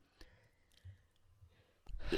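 Quiet breathing with faint clicks, ending in a louder, rushing exhale like a heavy breath or sigh. No one speaks.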